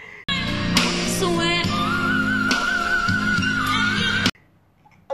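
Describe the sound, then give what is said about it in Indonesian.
A piercing, high sustained vocal note in whistle register wavers slightly over dense, loud musical backing for about four seconds, then cuts off abruptly into near silence. “Lo bisa whistle whistle note oh.”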